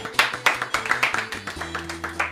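Rhythmic clapping, sharp claps landing at a steady quick pace, about four per second, over music with a low, sustained bass line. No one speaks.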